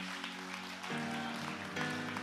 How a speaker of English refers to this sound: Can somebody help me say thank you to these wonderful people tonight? Come on, somebody, give them a, a round of applause. Let them know that you're grateful for them.